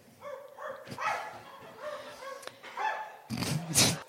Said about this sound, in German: Ein kalter Wind zieht auf. Irgendwo in der Ferne hören sie einen Hund bellen.